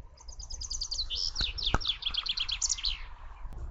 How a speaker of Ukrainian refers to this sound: Це є пташці, яка разом з тобою слухала мене.